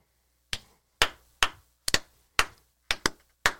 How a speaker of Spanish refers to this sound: Coño, pero quedamos que era un aplauso, no una vaina de, matar mosca.